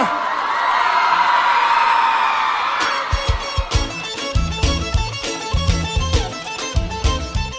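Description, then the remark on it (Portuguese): A crowd cheers and whoops loudly for a few seconds, a dense wash of voices, before a punchy rhythmic music track kicks in and takes over. “Quem curtiu faz barulho aí, família.”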